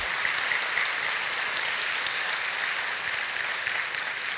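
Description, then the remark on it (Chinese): Sustained audience applause at a church service, a dense, steady wash of many hands clapping at an even, fairly loud level throughout, with no voices standing out; the audience applauds its members with same-sex attraction. “我们给我们当中很多同性倾向的弟兄姐妹，我们给他们一个热烈的掌声，好吗？”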